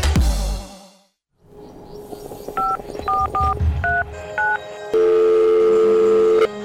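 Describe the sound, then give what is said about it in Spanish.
A short series of touch-tone phone dialing beeps, around half a dozen quick two-tone presses, followed by a steady, sustained line tone, as a son phones his mother. A brief clatter comes before the dialing, and no one speaks. “Estoy llamando para decirle que no voy a poder pararme a beberme el cafecito hoy.”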